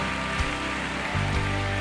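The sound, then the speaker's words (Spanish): A crowd applauds in a dense, steady wash of clapping that holds at an even loudness throughout, with a low sustained tone humming underneath and no voices. “aplauso y vamos a profetizarlo y vas a verlo.”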